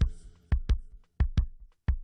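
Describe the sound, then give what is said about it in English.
A steady heartbeat thumps in clear lub-dub pairs, about three beats across the stretch, each double pulse low and prominent with brief quiet gaps between. “That's a heartbeat.”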